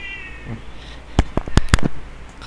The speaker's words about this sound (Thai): ผมมีแมวอยู่ด้วยนะครับมาตอนนี้ชื่อว่าประเสริฐประเสริฐไอแมวหลงนะฮะที่มันก็วนเวียนอยู่กับผมนะท่านี้แหละพอแวะมากินข้าวแวมานอนที่บ้านบ้างตอนกำลังอัดอยู่มันก็ร้องแมวแมวแมวแล้วก็ต้องเรียกมาเข้ามาในบ้าน